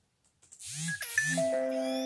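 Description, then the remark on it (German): A bright electronic notification chime rings out in a short rising sequence of tones, ending on a sustained, ringing note. It is fairly loud and stands alone with no talking. “Sorry, hab gerade äh, Benachrichtigung bekommen.”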